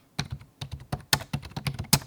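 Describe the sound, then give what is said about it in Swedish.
Rapid typing on a computer keyboard while doing a Google image search for the word 'zonterapi', a quick irregular run of crisp clicks and key taps over about two seconds, moderately loud with no voices. “Så, eh, jag gjorde just en bildgoogling på ordet zonterapi och fick upp en massa fötter med kulörta mönster och massor av pytteliten text som man inte kan läsa.”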